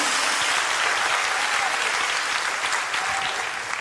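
Sustained applause from a large crowd, given to the Lord during preaching, dense and steady clapping that stays loud throughout before easing slightly at the end.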